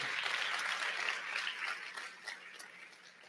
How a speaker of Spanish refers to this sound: dale un fuerte aplauso al Señor, amén.